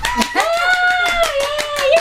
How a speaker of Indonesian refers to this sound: Tepuk tangan.